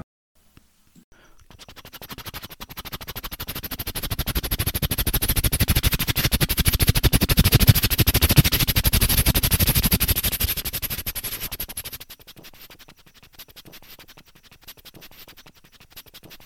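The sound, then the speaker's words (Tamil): A voice imitates a helicopter flying overhead from left to right, as heard by someone standing below: a rapid, breathy chopping roar swells louder over several seconds, holds, then fades away, with no talking alongside it. “கொஞ்சம் வித்தியாசமாக helicopter sound கேட்டால் எப்படி இருக்கும் அதுவும் நம்ம கீழே நின்றுட்டுருக்கோம் நம்ம லெஃப்ட் சைட்லேருந்து ரைட் சைடு ஹெலிகாப்டர் க்ராஸ் பண்ணால் மேலே எப்படி இருக்கும் அப்படின்னு ஒரு சின்ன கற்பனை”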